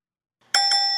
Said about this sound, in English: Alex, can I get a ding, please?